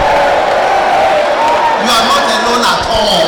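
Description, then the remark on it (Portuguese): A loud, dense crowd of voices shouting and cheering together, with rising whoops and raised calls swelling midway through, continuous for the whole stretch. “Mas você pode ouvir pelos gritos que você não está sozinho.”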